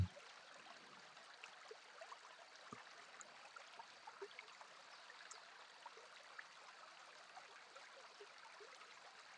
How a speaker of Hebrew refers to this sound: ולאט לאט תעבירו את תשומת הלב שלכם לצלילים של הזרימה, של המים